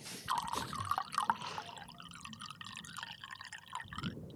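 Wine glugs from a bottle into a glass, a gurgling pour with bubbly ringing splashes at first, then a steady softer trickle that continues for several seconds with no one speaking.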